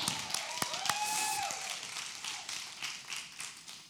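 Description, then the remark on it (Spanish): An audience applauds for the women in a steady, dense patter of many hands clapping for about four seconds, with a brief rising whistle-like tone early on. No one speaks. “Un aplauso a las mujeres, yeah.”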